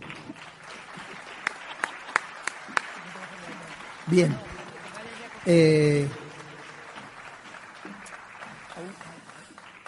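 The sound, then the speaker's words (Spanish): Audience applause during a pregón (festival proclamation speech) forms a steady, noisy bed with a few sharp, isolated claps early on, while two loud voiced calls burst out over it near the middle. “Y ahora pone aquí aplauso del público.”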